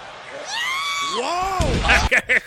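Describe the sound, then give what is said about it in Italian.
A loud, drawn-out, wavering scream whose pitch rises and then falls, immediately followed by a few sharp crashing bursts and a noisy, roaring crowd-like wash, from a wrestling audio clip played to present the Bludgeon Brothers match. “quel grido è meraviglioso, sai?”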